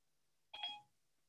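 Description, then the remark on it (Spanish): A single short electronic phone tone, like a dialing or activation chime, sounds once, clear, with quiet before and after and no voices, as a phone's Siri voice assistant starts dialing a call. “Ya me está marcando, ¿ya vieron? No, Siri, ahorita no, gracias.”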